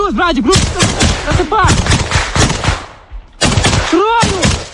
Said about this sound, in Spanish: Escuchábamos ahora mismo el tiroteo que se producía hace unas horas en el frente de Ucrania.